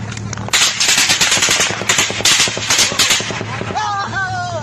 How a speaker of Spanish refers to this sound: Eso fue en Tamaulipas, pero mire lo que está pasando en Chihuahua, un enfrentamiento entre bandas delincuenciales. Así sirvió esta balacera ahí en el norte del país.